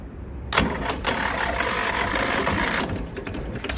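A heavy diesel tractor engine cranks and catches, then settles into a loud, steady rumbling run, with no one talking over it.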